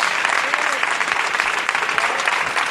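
A crowd bursts into sustained, dense applause, a loud steady wash of many hands clapping with no pauses, some faint voices mixed in.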